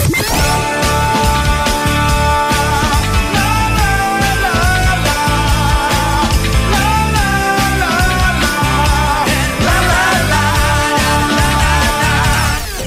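A pop rock song plays loud and full, with a male voice singing a melodic line over steady drums, bass and guitars throughout.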